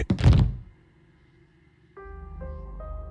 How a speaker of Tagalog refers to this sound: Hanggang sa nagulantang ako nang may narinig akong kumalabog sa sahig.